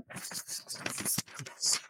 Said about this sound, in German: Wir können das Blättern, können wir nachher samplen